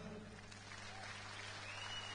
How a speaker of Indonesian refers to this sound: Woi, di depan kita ini. Kasih tepuk tangan dulu.